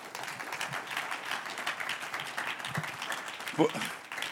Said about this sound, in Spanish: Qué cambio, qué negocio, ¿no? Un aplauso al que vive.